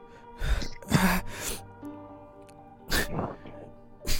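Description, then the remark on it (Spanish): A voice imitates heavy, gasping breaths: several loud, forceful inhales and exhales in an uneven rhythm, with short pauses between them and no words spoken. “Ah, empieza, como a, empieza como a respirar fuerte.”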